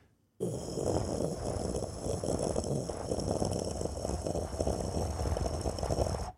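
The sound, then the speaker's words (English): A person imitates Death Star ambient noise with a steady, rumbling, breathy drone of the voice, held continuously and fairly loud for about six seconds with no speech. “I fall asleep to Death Star ambient noise, twenty four hour on YouTube.”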